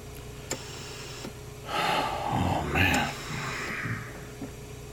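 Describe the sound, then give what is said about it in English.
A life support ventilator keeping a patient breathing sighs through a long, hissing breath cycle, with faint mechanical ticks spaced before and after it, all at a fairly quiet, steady level. “They've uh, they've put him on that uh, that hideous life support thing, it's just just to keep him breathing.”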